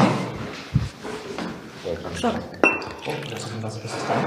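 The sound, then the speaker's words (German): Whisky poured into glasses for a whisky tasting, a tiny puddle in each glass, with glassware clinking and clattering and a couple of sharper knocks, while voices murmur faintly in the background. “Ah, jetzt, jetzt bitte ruhig, jetzt wird eingegossen.”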